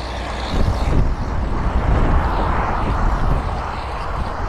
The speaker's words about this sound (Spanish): es que los camiones te pasan por el lado, no te dejan hablar.